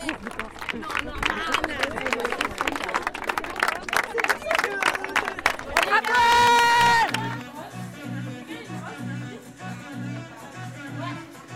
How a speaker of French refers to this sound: La soirée bat son plein chez les Gorettes.